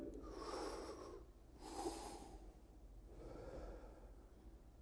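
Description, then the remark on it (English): A deep breath drawn in and let out, airy, followed by another long, deeper inhale; soft, unhurried breathing with no talking. “Take a deep breath in with me.”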